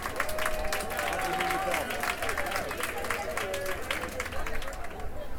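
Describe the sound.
A crowd applauds steadily, a dense wash of many hands clapping at an even loudness for several seconds, with some voices and cheers mixed into the clatter.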